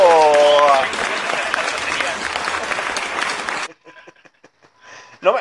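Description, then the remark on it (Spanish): A loud burst of dense clapping applause lasting a few seconds, with a brief whistle-like tone at the start, then cutting off abruptly into quiet talking. “Aplauso, maldito sea.”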